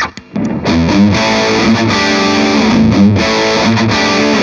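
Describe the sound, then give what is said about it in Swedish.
Electric guitar played through an Olsson overdrive pedal with an early low cut in its circuit, a thick, saturated distorted tone with an old-school character and a loose, woolly low end, chords ringing steadily at full volume after a brief quiet start. “Där hör man ju tydligt att uh, Ols Olssonen låter mycket mer old school och har lite flubbigare bas.”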